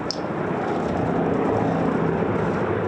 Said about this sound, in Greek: Είναι η στιγμή που το μοιραίο Καναντέρ CL215 χάνει την ισορροπία του και καρφώνεται μέσα στην χαράδρα.